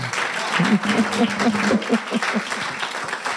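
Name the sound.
applause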